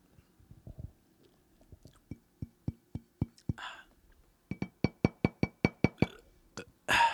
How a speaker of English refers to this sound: That is the sound of an empty bottle of Backhouse Cabernet Sauvignon.